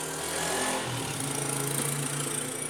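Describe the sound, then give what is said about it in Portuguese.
A small motorcycle engine drones steadily outside, its buzzy, raspy tone holding at a constant loud level throughout with a slight swell early on. No voices are heard. “Seu pau no cu do caralho, que sua moto filha da puta.”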